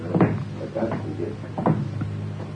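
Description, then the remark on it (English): The door to the kitchen of an inn is opened and shut, with a few wooden clunks and rattles spread over a couple of seconds against a low steady hum. “And the door to there's got to be kept shut.”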